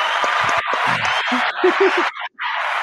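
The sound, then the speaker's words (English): A short burst of clapping, a dense steady patter of many hands with a few voices calling out underneath, briefly dropping out near the end before resuming. “there we go i feel like oh yeah let's do a, a round of applause real quick”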